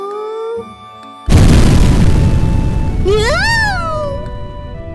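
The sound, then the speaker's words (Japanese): A sudden, loud explosion of an office multifunction fax machine, set off by a repair technician's mistake during a repair, booms in after a quiet moment, its roaring rumble lingering for several seconds while a wailing, meow-like cry rises and falls over it. “今の音は過激派でも押し入ったのかにゃんははい情報システム部にゃんや猫さんファックスのところにいなくてよかったわん今業者が修理に来てくれたけどちょっと失敗して爆発させちゃったらしいんだわんどんな修理をしたら複合機がダイナマイトになるにゃん”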